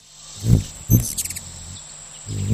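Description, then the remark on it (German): Hummingbird wings buzz in three short, low whirring bursts as the birds zip by in a rainforest on Canada's west coast, set against a steady high chirring of insects in the background. “Ja, die klingen toll, ne? So wie so Riesenbrummer mit ihren schnellen Flügeln.”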